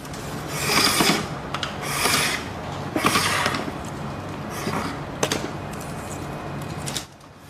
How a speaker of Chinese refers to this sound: 他正在打磨篾丝，准备制作一匹竹马。而做一匹竹马用的篾丝必须细到三十条过寸。